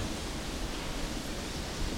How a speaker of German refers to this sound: Dieses Raue jetzt, das wilde Meer. Das ist schon toll, oder?